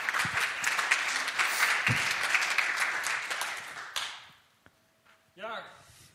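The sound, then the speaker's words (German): Steady, dense applause from a crowd as a speaker comes to the front, filling the first four seconds, then fading out, followed by a brief quiet stretch and a short rising voice-like sound at the end. “Du darfst gerne nach vorne kommen mit einem Applaus und uns kurz mit hineinnehmen.”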